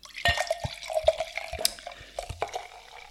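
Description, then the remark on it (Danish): Lambrusco wine being poured into a glass: a bubbly, gurgling pour with irregular splashes and drip-like plops over about three seconds, moderately loud, with no one talking. “Vi tager lige lidt mere Lambrusco.”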